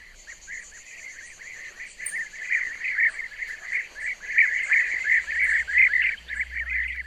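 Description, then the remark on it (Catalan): A chorus of European bee-eaters calling continuously, with overlapping rolling, liquid trilled notes in a steady stream, fairly loud and rising slightly in intensity, with a faint high insect-like hiss in the background. “Doncs aquest so de l'avellarol és eh, quasi inconfusible”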